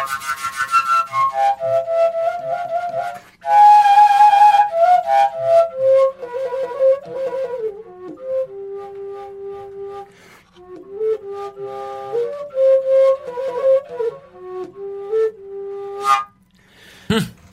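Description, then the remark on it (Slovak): A wooden fujara overtone flute plays a melody of overblown high tones, breathy and bright, with sustained notes sliding between pitches and short breaks for breath, played alone without any talking. “Väčšinou na fujarke prefukuješ tie vyššie tóny, hej?”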